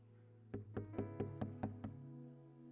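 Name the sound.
knocking on a door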